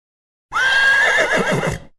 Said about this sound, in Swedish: Yes, fram med gnägget.